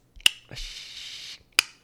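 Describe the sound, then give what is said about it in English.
A radio switches on with a sharp click, a short burst of hissing static plays for under a second, then a second click cuts it off, as the character Billy starts and stops the game broadcast on the radio in a film's opening scene. No one speaks. “he keeps clicking it on and off”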